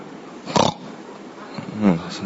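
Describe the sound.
A voice imitates the snoring snort of someone falling asleep while breathing in: a short breathy burst, then a rough, gurgling pig-like snort, moderately loud with no other speech.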